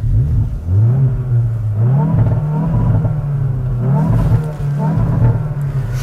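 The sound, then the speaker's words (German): A test car's engine revs hard while accelerating, its low droning pitch climbing, dropping briefly at each gear change, then rising again in a steady, loud sequence. “Da macht schon der Sound Spaß und vor allem er verspricht nicht zu viel.”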